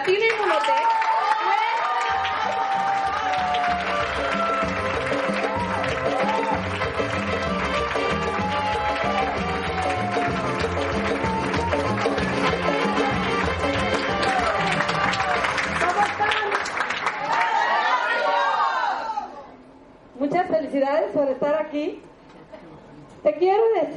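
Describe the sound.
An audience at a network marketing event applauds and cheers loudly and steadily for nearly twenty seconds over upbeat music with a thumping beat, welcoming a speaker, then the clapping stops abruptly and a voice begins speaking.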